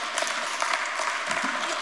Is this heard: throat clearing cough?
no